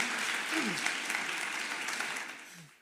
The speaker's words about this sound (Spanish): ¿Por qué no le damos un aplauso a todos los que nos escuchan en la radio? Este aplauso es para ti.